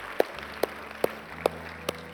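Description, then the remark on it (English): At a church service after a prayer, five sharp, evenly spaced hand claps ring out as a round of applause for God, at a steady rhythm of about two per second, over a low continuous background murmur, with no talking. “Come on, let's give God a round of applause today, can we?”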